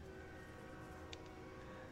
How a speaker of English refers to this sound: There's the train. I have my window open because it's 70 degrees outside.